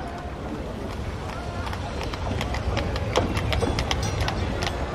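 Hooves clip-clop steadily on a hard street in Paris, many irregular knocks over a constant low rumble of a horse-drawn tram rolling past, growing slightly louder toward the end.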